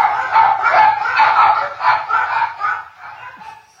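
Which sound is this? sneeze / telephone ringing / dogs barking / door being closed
dogs barking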